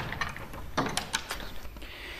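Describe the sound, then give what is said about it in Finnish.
A workroom door off a shared hallway is pushed shut, with a soft thud followed by a few quick latch clicks. “Pistetään vielä kiinni, kun se on yleinen käytävä, niin ei nyt tuota...”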